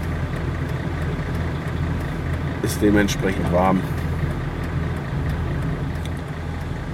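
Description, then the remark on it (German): Steady low rumble of road noise inside a moving car with the windows open and no air conditioning, 18 degrees outside, constant and fairly loud, with a man talking briefly over it partway through. “ich habe ja keine Klimaanlage im Auto, sonst gehe ich kaputt.”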